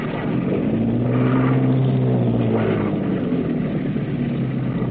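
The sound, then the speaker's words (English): A boat engine roars up loud, its steady drone swelling in pitch as it revs hard at full astern while docking at a wharf in the rain, then settling back down, with no voices over it. “Some men run down to the wharf and stand there, waiting to catch your mooring lines as you come in.”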